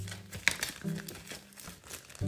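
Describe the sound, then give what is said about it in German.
Protective plastic film peeled away in a crinkly, crackling rustle lasting about two seconds, with a sharp snap near the start and uneven bursts of papery crackle after it, at moderate volume. “So, die Folie runter.”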